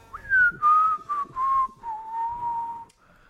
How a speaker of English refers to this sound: Mm, nice, nice whistling. Lovely. You were whistling along there.